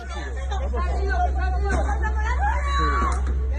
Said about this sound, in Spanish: Un vecino pide una ambulancia mientras una mujer grita desesperada, el tráfico cortado y un hombre tirado en la acera rodeado de un gran charco de sangre.